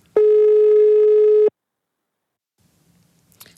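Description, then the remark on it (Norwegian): A single steady, buzzy ringback tone sounds on a phone line for over a second as a call to a girl's father goes unanswered, then cuts off into near silence with faint rustling at the end. “Men han eh, tok ikke telefonen.”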